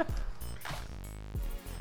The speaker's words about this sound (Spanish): Pinches perros, nunca se va a perdonar.